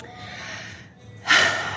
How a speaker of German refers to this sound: Da muss ich einmal atmen, weil Es ist wirklich unglaublich schön hier.